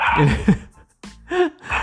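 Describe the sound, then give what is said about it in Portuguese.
A dog barks several times in short, sharp bursts, loud, with brief pauses between the barks. “Mas seu cachorro participou bastante, viu?”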